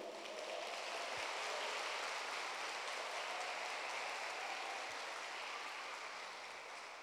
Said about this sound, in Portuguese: Então vocês são livres para aplaudir quando quiser, para dizer amém, aleluia, glória a Deus. Você tem liberdade completa. Por falar nisso, vamos dar um aplauso bem forte ao Senhor.